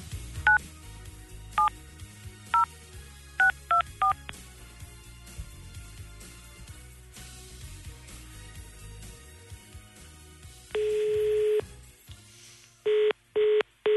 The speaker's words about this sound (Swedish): Alla ni som är nominerade, var redo vid era telefoner för nu ringer jag. Är ni med? Ja. Får hoppas att du svarar.